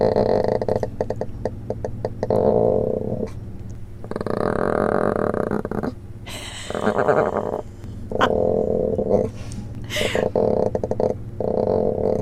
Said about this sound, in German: Also ich würde mal sagen, da fühlt sich einer wohl, oder …? Ja, das ist ein sehr zufriedenes Panda-Baby, das gerade gefressen hat und jetzt den Bauch massiert bekommt von seinem Pfleger, was sonst die Mama machen würde